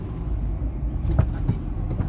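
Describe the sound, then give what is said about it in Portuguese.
A car rolls by on the road, a steady low rumble of engine and tires with a couple of brief knocks standing out over the traffic noise. “Nem tá vendo o bagulho. O cara do carro aqui.”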